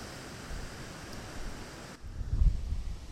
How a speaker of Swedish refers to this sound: Oj, nu blåser det här.